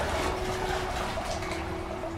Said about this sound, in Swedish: Ni kommer till slut fram till reglagen och påbörjar jobbet med att tömma tankarna. Med starka tag vrider ni om reglagen. Och med en lättans suck så hör du hur vattnet forsar iväg. Bort från den plats som vilar under den smältande lavan.